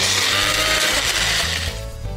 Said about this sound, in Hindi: उसमें पामेजान डालने के बाद पामेजान चीज़ इसको हम पीस लेते हैं यहाँ पे बढ़िया सा मेरे पास वंडर शेफ का मिक्सी है न्यूट्री ब्लेंड